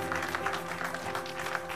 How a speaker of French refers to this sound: Accompagnez-nous, vous qui êtes là à la maison, avec des applaudissements pour le roi des rois encore ce matin.